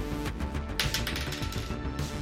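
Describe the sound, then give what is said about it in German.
A ten-sided die, rolled for damage, clatters across a hard surface in a quick burst of sharp rattling clicks, then tumbles to a stop showing a two, with no talking. “Äh, würfel doch bitte den Schaden aus. Mhm. Das ist ein W10 bei mir.”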